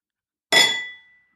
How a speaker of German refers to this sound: Das ist, wenn man die Tasse gegen die Suppenschüssel klopft. Tasse gegen die Suppenschüssel.